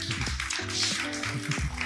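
An audience applauds, a dense, steady wash of many hands clapping at once that holds at an even level for about two seconds, with no one speaking.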